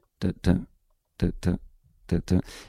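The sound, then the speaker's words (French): A voice imitates the heavy footsteps of a polar bear walking 15 metres away: three pairs of short, thudding vocal beats in a steady plodding rhythm, fairly loud, with a breathy crunch ending the last pair. “Donc on est à 15 mètres et on entend l'ours polaire qui marche et donc ça fait”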